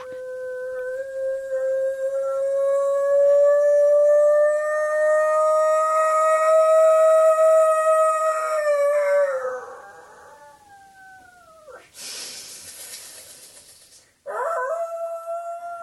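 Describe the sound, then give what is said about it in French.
A person howls like a wolf: one long, loud, sustained howl rising slowly over about nine seconds before sliding down, a brief rushing noise, then a second howl begins. “c'est-à-dire que je me mets à sauter, bouger, et, le plus étonnant, au lieu de parler, je me mets à hurler comme un loup.”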